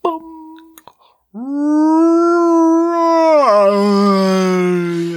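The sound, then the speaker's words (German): A person makes a long, drawn-out wailing moan in imitation of whale song, the pitch sliding and swelling before dropping lower, preceded by a brief shorter hum and a pause. “ist das, Walisch. Ist das der Walaus?”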